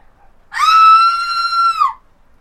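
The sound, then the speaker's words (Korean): A woman lets out one loud, sustained high-pitched scream from beyond a wall, lasting about a second and a half, piercing, with silence before and after and no talking. “그때 담 너머에서 여자의 비명 소리가 허공을 갈랐다.”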